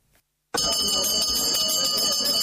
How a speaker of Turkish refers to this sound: onlar için ilk ders zili çaldı. Yeni eğitim öğretim yılı ilkokul 1, anaokulu ve 5. sınıf öğrencileri için başladı.